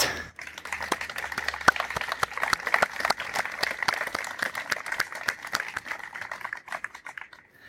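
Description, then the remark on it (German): Applause for a wind ensemble after its morning performance: a dense, steady patter of many hands clapping that carries on evenly for several seconds at a moderate level, with no voices over it. “Ich finde, ihr habt einen Applaus verdient.”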